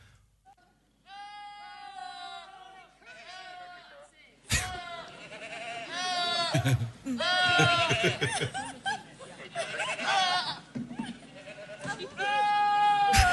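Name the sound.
goats screaming like humans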